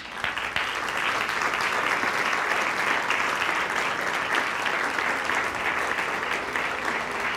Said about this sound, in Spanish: Damos un aplauso a Dios.